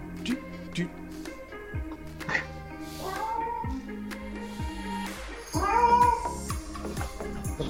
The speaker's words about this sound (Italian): ma scusate, ma la sigla doveva mettere quella di un gatto in amore